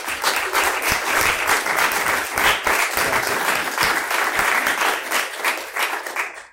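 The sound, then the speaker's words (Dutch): An audience at a SKEPP event applauds prize winners, dense overlapping claps forming a loud, even wash of noise that holds for several seconds before tapering off abruptly at the end. “Geef ze een applaus, aan.”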